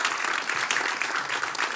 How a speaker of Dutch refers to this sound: En mag ik van jullie nog een keer een heel warm applaus voor Zaire Krieger?